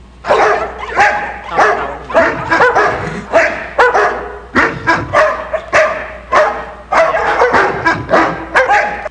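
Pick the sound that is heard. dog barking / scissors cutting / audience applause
dog barking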